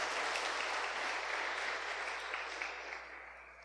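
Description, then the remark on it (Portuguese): A crowd applauds for sisters who have just danced, a dense, steady wash of clapping that holds strong for a few seconds and then gradually tapers off. No one speaks over it. “Uma salva de palmas para essas irmãs.”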